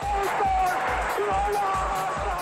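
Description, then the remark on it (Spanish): A stadium crowd roars and cheers in a dense, continuous wall of sound, with steady low thumps pulsing underneath and a faint sustained tone drifting through the din. “Cuando escuchamos la grada rugir, es la pasión que se hace sentir.”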